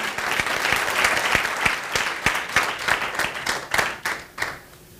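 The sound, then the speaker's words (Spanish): An audience at a bilingual Spanish-English sermon breaks into strong, sustained applause, dense overlapping clapping with sharp individual claps standing out, staying loud before thinning slightly toward the end. “Denle ese fuerte Give a aplauso, strong déselo fuerte, déselo lo fuerte.”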